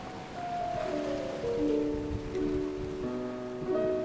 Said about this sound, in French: Le bateau danse sur le dos des vagues, alors que Chopin enivre ce voilier.